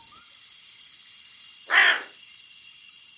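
A single harsh caw of a black crow rings out, short and fairly loud, over a steady background hiss. Nothing else happens and no one speaks.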